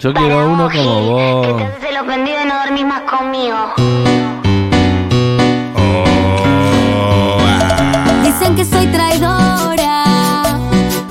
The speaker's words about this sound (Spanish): sacó un nuevo disco que suena más o menos así.